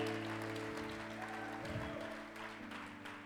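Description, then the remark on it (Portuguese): A church audience shouts to the Lord as loud as it can, roaring and cheering together in a loud, sustained wash of voices and clapping, with steady keyboard chords holding underneath for the full few seconds. “Dê um brado ao Senhor o mais alto que você puder, porque o teu quase acaba.”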